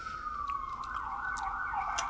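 A fire engine siren from an active fire station nearby wails in a steady, continuous tone that slowly drifts lower in pitch, loud and sustained over a faint low rumble, with no one talking.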